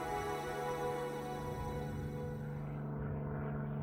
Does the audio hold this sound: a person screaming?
no